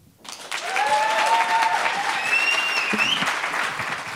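An audience breaks into sustained applause, a dense wash of clapping that swells quickly and holds steady for several seconds, with a few faint whistles or cheers riding over it and no speech.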